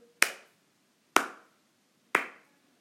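A 'Slow Clap' emote sound effect from a game item shop: three sharp, isolated claps spaced about a second apart in a slow, deliberate rhythm, each with a bright crack and quick decay, with no voices present.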